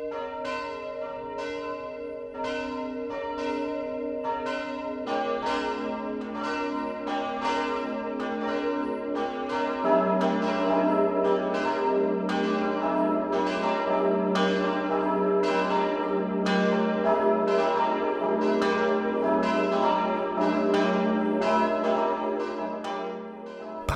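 midday church bells ringing

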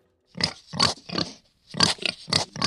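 pig grunting

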